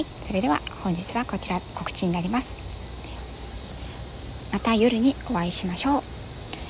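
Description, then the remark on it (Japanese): Cicadas drone steadily outdoors in summer in a continuous high-pitched buzz that never lets up, sitting behind a woman who speaks into the microphone while recording outside. “今、外にいての収録なので、セミの声とか、いろんな音が入ってしまってると思うんですが、まあ、夏の風物とし風物詩としてお楽しみいただけたらと思います。”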